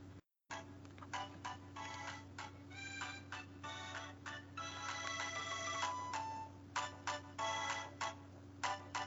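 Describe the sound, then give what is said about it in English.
Tinny, bright video game music plays from a handheld console's small speaker, a continuous electronic melody of short bright notes over a steady low hum, with no one talking. “I mean, let me take it out of sleep mode. I'm used to hitting the power button. See if you guys tell what game I'm playing.”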